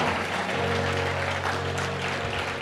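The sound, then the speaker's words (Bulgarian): An audience at the Probuzhdane (Awakening) church applauds the pastors steadily throughout, a dense wash of clapping from many hands at a fairly loud, even level, with a low sustained hum running underneath. “Хайде, ръкопляскайте на пасторите.”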